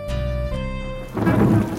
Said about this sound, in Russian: Но на обратном пути хлынул ливень, все тропинки в незнакомом лесу размыло, и люди сбились с пути. Пять дней, не прекращаясь, шел проливной дождь.